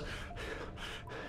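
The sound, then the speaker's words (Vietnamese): Heavy, rapid panting, a person gasping for breath in quick ragged pulls, about three or four loud breathy bursts with brief dips between them, no talking. “Tường thở phào rồi gặp người thở dốc.”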